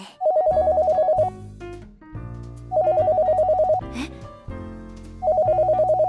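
A telephone rings in three loud, trilling bursts about two and a half seconds apart, with soft background music filling the pauses between rings.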